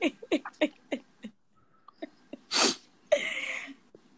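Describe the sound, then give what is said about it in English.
A loud sneeze bursts out in two harsh, breathy blasts near the end, preceded by a run of short, choppy breathy sounds and a brief quiet pause. “God bless you.”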